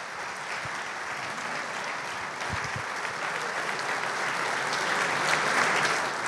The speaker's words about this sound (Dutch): En onze hoofdgast van vanavond, de avond waarom we hier zijn, Jan Jansen. Graag een hartelijk applaus.